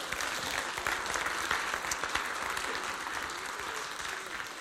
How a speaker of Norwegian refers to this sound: Kan jeg få en skikkelig applaus på denne her, så hadde jeg syntes at det hadde vært veldig godt.